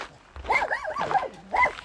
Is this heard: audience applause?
no